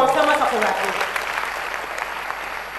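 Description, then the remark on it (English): An audience claps their hands for the Lord in a steady, dense burst of applause, loud, with a voice briefly rising over the clapping at the start. “Clap your hands for the Lord.”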